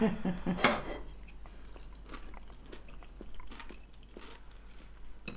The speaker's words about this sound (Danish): Og mens vi nyder de blomsterformede kiks med rubide og æggesalat